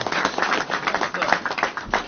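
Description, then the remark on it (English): An audience claps steadily, a dense, even wash of many hands slapping at once, fairly loud and continuous throughout with no voices standing out above it. “You don't gotta clap, cause I'm at a point in my life”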